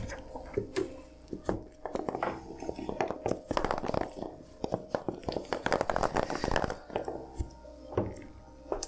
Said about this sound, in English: I just missed the table because I'm blind. I think my metal dice don't like me today.